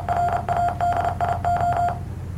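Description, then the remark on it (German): A steady mid-pitched electronic tone from an online Morse code translator website beeps out Morse code, a quick run of short and long pulses over about two seconds, with a low hum underneath and no voices. “Es ist ein Morse Code Translator von auf einer irgendeiner Sa beliebigen Seite”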